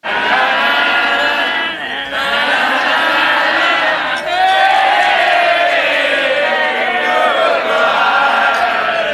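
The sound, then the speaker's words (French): A large wrestling crowd roars continuously, cheering and shouting in a dense, loud wall of voices, with a brief dip near two seconds before the clamor surges again. “Non, c'est des bons feelings, tu sais, quand t'es dans le ring, puis ça se passe bien, qu'il y ait des réactions de la foule comme ça.”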